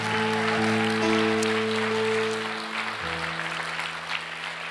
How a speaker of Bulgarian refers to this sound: О, хайде, ръкопляскай, ако ръкопляскаш. Come on!